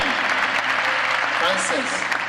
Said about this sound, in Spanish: Dale un aplaude al Señor.